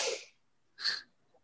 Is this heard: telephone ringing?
no